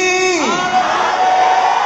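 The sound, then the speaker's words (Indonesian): A loud voice gives a drawn-out shout that falls in pitch. It is swept up at once into an audience shouting hallelujah together, a dense, sustained roar of many voices. “Saya mau meneriakkan ada haleluya di sini.”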